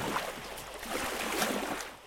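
Oars row a small boat across the open sea toward an island, with a steady wash of sloshing and splashing that stays even in loudness. No voices are heard.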